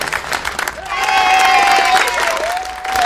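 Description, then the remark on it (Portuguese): A crowd applauds for the Fortaleza team in a steady, dense patter of clapping, with a shrill, sustained whistle or cheer rising over it after the first second and holding to the end. “E palmas para mim também, né? E também palmas pro Fortaleza, né?”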